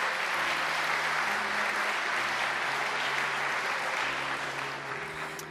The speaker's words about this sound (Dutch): Dus ik zou zeggen, geef ze een daverend applaus.